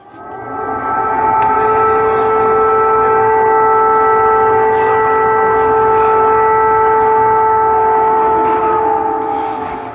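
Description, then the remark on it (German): Steady air raid sirens wail across Kyiv, Ukraine, several sustained tones overlapping and droning continuously at a loud level with a faint rumble of urban background beneath them. “Das sind Sirenen, Sirenen, die man in Kiew gehört hat, in der Hauptstadt der Ukraine mitten in Europa.”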